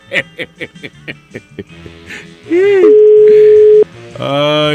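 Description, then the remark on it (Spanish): A phone line rings with no answer: one steady, even ringback tone lasting about a second, with a person's voice talking and chattering before it and again after it. “A ver, aquí no contesta nadie. Nadie contesta.”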